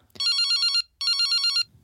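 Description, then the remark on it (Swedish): A phone rings twice for an incoming call with a bright, warbling electronic trill, each burst lasting just over half a second with a short pause between, loud with no voices. “Vill du eh, pröva att ringa mig? Ja, jag ringer dig nu då.”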